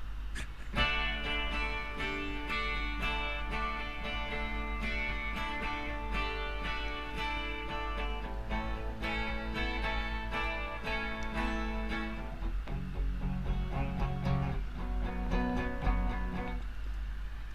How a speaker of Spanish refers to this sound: Ahí está. Esa es la Rickenbacker 360, que de 12 cuerdas, de 12 cuerdas, se hizo famosa cuando la empezó a usar … en la década del 60.